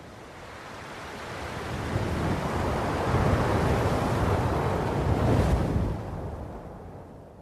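Strong wind roars in a broad, rushing wash that swells and holds for several seconds, then eases off toward the end, with no voices present.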